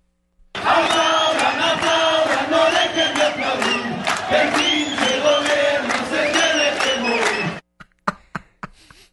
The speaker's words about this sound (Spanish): a mí se me ocurrió, pues, buscar cómo marchan, porque hasta tienen coro que gritan los profesores, sí, porque además son bien aplicados para eso. Los profesores son especialistas del caos. Vamos a escucharlos.